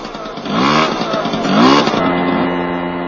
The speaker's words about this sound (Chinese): 你看这电机怎么样了？ 哎，没问题，我看没问题。发动一下试试。